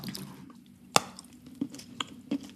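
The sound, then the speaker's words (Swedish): Chewing of something crunchy like chocolate: one sharp, loud crunch followed by a few softer, irregular bites, with no talking. “Den var lite knaprigare lät det mm.”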